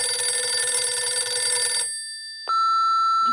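A telephone bell rings loudly for an incoming call to a radio programme, with a dense, rattling metallic tone for nearly two seconds, then cuts off; after a short pause a single steady electronic beep sounds, like a line connecting.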